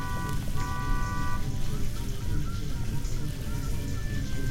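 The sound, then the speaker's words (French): Car horns honk amid a congested traffic jam on the way into the city centre, a steady low engine rumble underneath, with a sustained blast near the start and fainter toots later on. “Puis, c'est le bouchon.”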